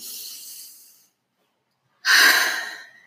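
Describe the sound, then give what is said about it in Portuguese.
Two slow, airy deep breaths with a pause of silence between them, taken with eyes closed during a guided breathing exercise; the second is a louder, fuller inhalation that rushes into the microphone and gradually tapers off. No talking. “Então, vamos lá, fechando os olhos, respirando fundo.”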